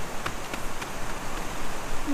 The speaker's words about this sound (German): Hörst du das? Es rauscht, ne? Ich glaube, das ist ein Fluss. Ein großer Fluss.